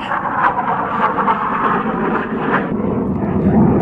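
fighter jet flying overhead

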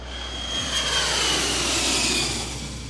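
jet airplane engine

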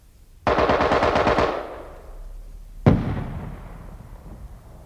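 bursts of automatic gunfire

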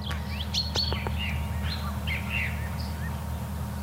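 song thrush singing

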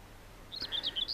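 common whitethroat song

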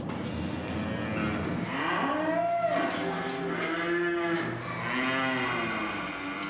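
cow mooing

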